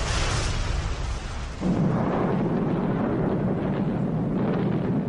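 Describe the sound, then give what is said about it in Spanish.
A continuous, loud roar of explosions and rumbling blasts as a wave of bomber aircraft drops incendiary bombs on the industrial port of Hamburg in an air raid, deepening into a heavy low rumble partway through with no pauses. “y a continuación una oleada de aviones bombarderos lanzaron bombas incendiarias.”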